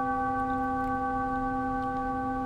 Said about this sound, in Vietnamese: tiếng chuông đó là báo hiệu là đã hết 5 phút rồi